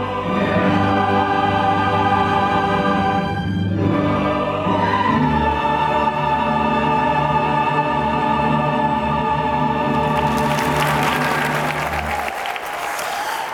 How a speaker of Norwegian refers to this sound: Full jubel eh, her. Det er operafest i Kristiansund i kveld, og den varer 16 dager fremover.